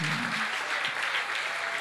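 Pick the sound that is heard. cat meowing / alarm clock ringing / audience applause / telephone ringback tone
audience applause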